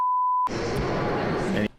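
A single steady censor bleep, a pure mid-pitched tone lasting about half a second, censors a swear word said about Josh Hawley and cuts off abruptly as a man's voice takes over and keeps talking.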